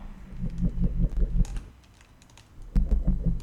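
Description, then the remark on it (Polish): Rapid arrow-key presses on a computer keyboard in two bursts separated by a short pause, with a low pulsing hum beneath the clicks. The tapping is moderately loud. “I teraz kiedy będę się przezywał strzałkami, to no praktycznie nawet nic nie słychać, bo to jest tak wolno,”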